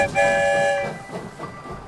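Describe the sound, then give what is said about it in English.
A train horn blares in a steady chord for nearly a second, then fades as the rumble and clatter of a train rolling along the tracks carries on. “I wonder where the story train will lead us this time.”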